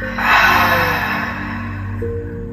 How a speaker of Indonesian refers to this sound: Ambil nafas panjang dari hidung, buang dari mulutnya.